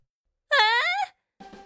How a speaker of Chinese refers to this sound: 大妈的尖叫声划破天际，孙离赶紧收手。